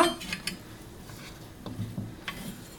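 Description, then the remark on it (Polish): A plate clatters down onto a hard surface beside a pot of beetroot soup (barszcz) being cooked, ready for the vegetables to be taken out: a bright ceramic clink right at the start, followed by a few quieter knocks and taps of kitchenware. “Stawiam sobie po prostu talerzyk obok garnka”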